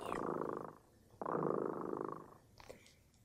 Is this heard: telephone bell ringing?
no